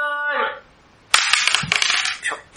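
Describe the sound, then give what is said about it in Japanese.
A brief tonal sound fades out, then after a short pause dice clatter and tumble across a hard surface in a rapid burst of clicks lasting over a second, fairly loud, rolled for a 'dice of fate' segment. “はいはい、じゃあ、えー、運命のサイコロタイムです。”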